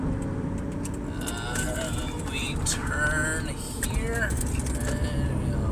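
A couple of loud motorcycles rumble, their engines a steady, heavy roar that barely lets up and swells a little toward the end, with faint whining tones riding over the drone.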